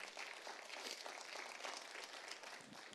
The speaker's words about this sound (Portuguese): Aplauda o Senhor, pode aplaudir.